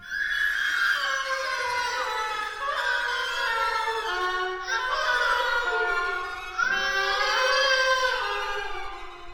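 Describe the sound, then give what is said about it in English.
Oboe and strings in the opening movement of an orchestral piece mimic a baby screaming, cooing and babbling with sliding, wailing phrases that rise and fall. The passage plays continuously and fairly loud, with no one speaking. “first heard in the opening movement when oboe and strings articulate what the score describes as, quote, a baby screaming, cooing, and babbling.”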